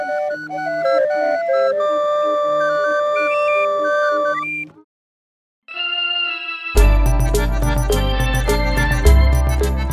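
A street barrel organ played by a Mexico City organillero plays a reedy, wheezing melody of sustained notes, breaks off for a moment, then comes back louder and fuller with a thumping bass accompaniment.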